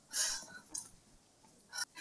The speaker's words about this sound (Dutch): Ik heb Lieke opgescheept met, de... met het verplaatsen van de stoel.